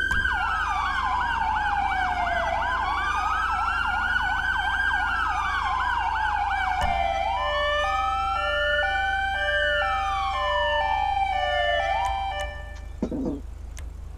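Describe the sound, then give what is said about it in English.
A loud police siren sweeps through a rising and falling wail with a rapid warble layered in, then switches to an alternating high-low two-tone pattern before cutting off abruptly. “That's what siren sound like.”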